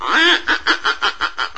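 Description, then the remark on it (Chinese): Ducks quacking by a large pond as ducklings hatch: one drawn-out nasal quack followed by a quick, steady run of about six shorter quacks, fairly loud and with no voices. “可爱的小鸭子一只接一只的出生了。”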